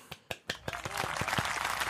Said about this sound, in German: Da kommt was. Nee, ah, nee das, war ein Applaus.